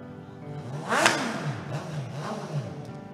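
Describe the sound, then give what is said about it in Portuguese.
A motorcycle engine revs up sharply and climbs in pitch, peaking loudly near the start before settling into a steady, wavering hum as the motorcycle enters. No voices are heard. “Mas irmãos, Agora presta atenção nessa moto que está entrando aí.”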